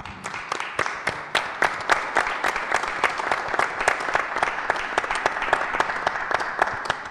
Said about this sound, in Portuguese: Afonso Reis Cabral é o nosso convidado. Bem-vindo e peço o vosso aplauso.